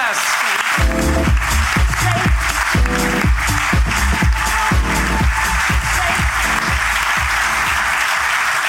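A crowd breaks into loud, sustained applause, a dense steady clatter of many hands that keeps going for the full stretch, with a faint rhythmic low thumping underneath.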